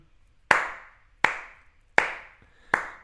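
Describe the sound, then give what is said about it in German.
One person on platform section D of a train platform in Berlin gives four slow, deliberate ironic hand claps after a 30-minute train delay, evenly spaced about a second apart, each sharp clap ringing out with a short echoing tail; no one speaks. “Ironischer Applaus auf dem Bahnsteig in Berlin.”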